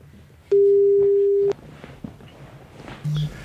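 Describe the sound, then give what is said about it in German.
A telephone rings once as a loud, steady electronic tone lasting about a second, followed by quiet background noise and a brief, lower beep near the end. No one speaks. “Klingelt schon.”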